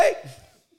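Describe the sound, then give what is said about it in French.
A single sharp knock on a table, followed by a short ringing room reverberation that fades out over about half a second; no talking. “c'est ce truc qui revient, une, espèce de résonance en gros.”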